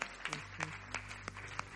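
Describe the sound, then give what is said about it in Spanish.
An audience applauding, heard as scattered, uneven handclaps over about two seconds rather than a dense roar. The claps are fairly faint, with a steady low hum underneath and no talking. “Dele aplauso, dele aplauso.”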